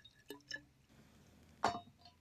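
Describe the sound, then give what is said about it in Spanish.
Water is poured into a glass bottle in short bursts, filling it up to the next marked line, with a couple of light clinks followed by a louder gush near the end; fairly quiet, with no talking. “Le echamos más agua hasta la otra rayita.”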